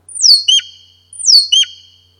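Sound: bird song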